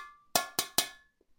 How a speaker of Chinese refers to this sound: 青铜锅的周身描画了大量的这个古绳纹和各种动物的纹饰。我拿起来这个锅，用手敲了敲，